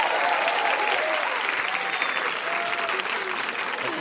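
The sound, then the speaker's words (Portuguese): An audience applauds steadily for about four seconds, a dense, even patter of many hands clapping, with faint crowd murmur and a few whistles mixed in, applauding Emily Lima, the first woman head coach of the women's national football team. “A primeira mulher no comando técnico da seleção feminina de futebol, aplaudam Emily Lima.”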